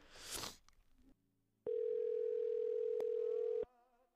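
A single loud, steady ringback tone from an outgoing phone call to a friend rings for about two seconds, with no one answering before it goes to voicemail, preceded by a brief burst of rustling noise.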